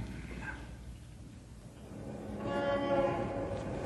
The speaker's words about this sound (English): Shut that window. Here we are in a skyscraper, 40 stories above the street, and yet that traffic noise would drive you crazy. Shut the window, I say.